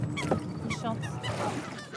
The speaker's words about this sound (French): Il y a des poules d'eau, des canards, des pans surtout des canards. On dirait qu'ils sont isolés du monde. Euh, qu'on voit à peine Paris, on l'entend, mais. Ils sont dans une petite bulle là.